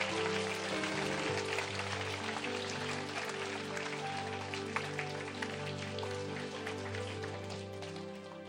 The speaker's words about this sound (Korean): 그리고 우리 갔다 오신 분도 많고 또 중보하신 분도 많은데 우리 함께 옆 사람에게 박수 쳐주면서 수고하십시오.